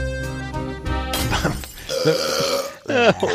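A quick sequence of several loud, close burps, each with a different pitch and texture, ending in a long gurgling belch with wobbling rhythm; no talking.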